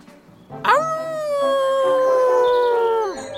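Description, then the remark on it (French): A cub scout leader shows the children how to howl like a wolf: a single long wolf-like howl swoops up, holds a steady pitch for about two seconds, then drops away. It is loud and alone, with no talking. “… leur montre comment crier comme un loup”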